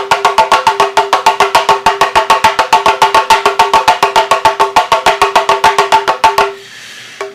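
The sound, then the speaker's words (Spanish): A Haitian hand drum beaten in a fast, even rhythm of sharp ringing strikes, about six per second, played alone for several seconds before stopping abruptly. “Este es un tambor este, haitiano.”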